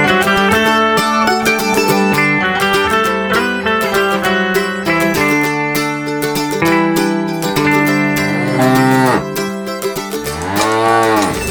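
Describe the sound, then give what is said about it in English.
Dairy cows moo loudly and almost without pause, several overlapping calls in a low, droning chorus, ending with a long bellow that bends up and then falls in pitch, on a small dairy and cheese-making farm in Wisconsin. “dairy farmer, milking cows and making cheese on my small farm in Wisconsin.”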